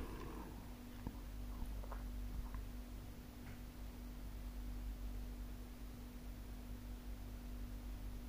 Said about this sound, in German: Na doch, der Kühlschrank. Hm. Den Kühlschrank hört man ja.